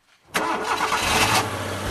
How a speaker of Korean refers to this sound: 차에서 시동이 걸리더니 트럭이 앞으로 전진하기 시작해?